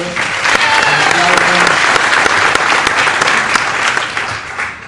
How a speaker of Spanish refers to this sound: Creo que no han llegado, pero pues una aplauso para ellos.